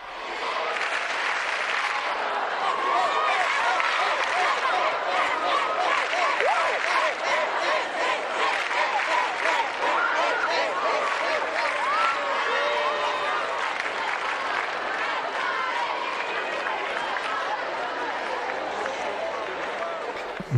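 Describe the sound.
A large crowd of young pilgrims at World Youth Day, gathered with Pope Francis, sings and shouts in Spanish continuously, a dense, steady roar of many overlapping voices with chanting and cheers that stays loud for the whole stretch.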